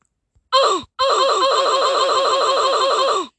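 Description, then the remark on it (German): A button in a downloaded soundboard app is pressed and plays a loud 'uff' groan: a brief vocal grunt, a short gap, then a long, quavering groan that pulses rapidly for over two seconds before cutting off, with no talking. “Und zwar einen U-Button, wo man draufdrücken kann. Danach macht, ein, macht so ein U-Geräusch.”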